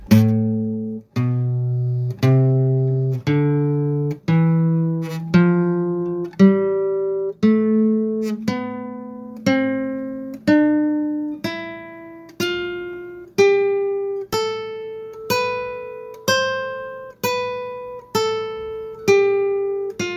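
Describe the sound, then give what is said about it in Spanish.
A musical scale climbs steadily upward, one clear note at a time, about twenty evenly spaced tones, each struck crisply and fading before the next. It plays alone with no voices. “Una escala no es otra cosa que un conjunto de notas ordenada una detrás de otra. Esto es una escala.”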